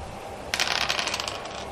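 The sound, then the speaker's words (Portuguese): Two dice clatter across a hard surface in a sudden burst of bright, rapid clicks that quickly thin out and fade over about a second, landing on 1 and 6, with no one speaking. “Eu pego minha carabina e, e aponto para ela. Dois dados.”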